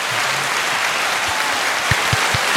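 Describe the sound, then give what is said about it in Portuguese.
Steady applause from a group, a dense wash of many hands clapping at even loudness, with a few sharper individual claps standing out near the end. “ah, faltou as palmas agora, faltou hein? Faltou as palmas. As palmas, se puder.”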